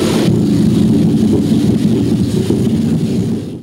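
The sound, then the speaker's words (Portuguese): A deep, continuous underwater rumble of curimbatá fish drumming with their swim bladders during the Piracema spawning run, the so-called Canto da Piracema, from a 1992 news report; a dense pulsing drone like an idling motor that holds steady for several seconds with no voices. “E eles vibram essa bexiga natatória e produzem sons. Aquele barulho que você dá gosto de você ver.”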